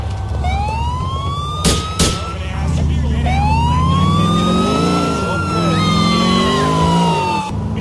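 An LCPD police car siren in a video game wails loudly, sweeping up and down in long cycles over a low engine rumble, with a couple of sharp bangs early on.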